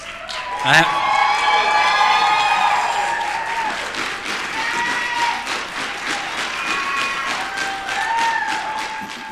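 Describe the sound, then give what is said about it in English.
A crowd of graduates cheers and claps loudly, with dense steady applause and high whoops and shouted voices rising over it throughout, after a sharp opening clap burst. “Um, there's clearly not 90 of you, so I'm going to need you guys to be doubly loud, okay?”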